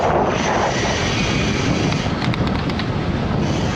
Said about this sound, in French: Parce que le vent est vraiment violent, il n'y a pas de changer de direction. Ça va pas être facile à gérer tout ça.